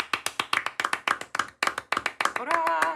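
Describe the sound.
Steady, brisk hand clapping from a small group, loud, for a guest at the end of an interview, going on for a few seconds before a voice starts speaking over the final claps.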